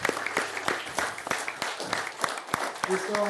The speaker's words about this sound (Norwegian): For et kor! Bra, nå må dere klappe på dere sjøl. Storstas.